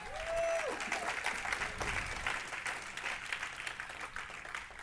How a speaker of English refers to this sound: Come on, let's clap for Jesus this morning.